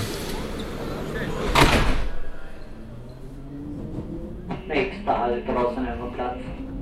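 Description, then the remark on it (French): A Berlin metro line 1 train idles with a low motor hum, then its doors slide with a sharp pneumatic whoosh and thud, followed by steady mechanical tones and faint background chatter on the platform. “Il va falloir qu'on prenne la ligne 1. Dépêche-toi, voilà la rame.”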